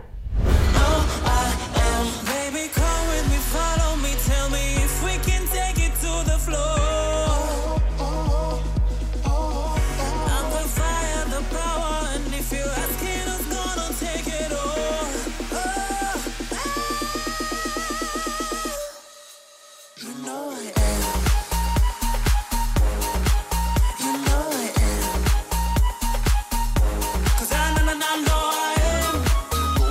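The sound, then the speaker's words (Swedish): An upbeat pop song plays loud and steady, with a strong thumping beat, bright layered synths and melodic lines. Around the two-thirds mark it drops to near silence for a moment, then comes back full. “Men uttalandet till trots verkar han vara fast inställd på att delta och det gör han med en dänga som låter så här.”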